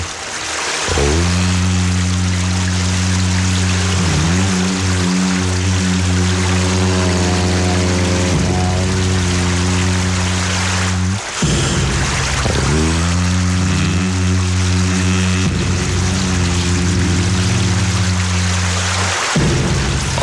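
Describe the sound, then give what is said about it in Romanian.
Liquid pours and streams steadily with a loud, continuous rush, a low humming resonance beneath it that shifts in pitch and breaks off briefly a couple of times. “Aoleu, stai că asta curge rău.”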